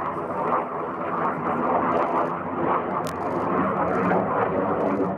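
A loud, continuous roar of F-16 fighter jets on test flights for Defence Industry Agency projects, passing overhead in the skies over Ankara, fills the whole stretch, a dense rumbling wash that holds steady without letting up.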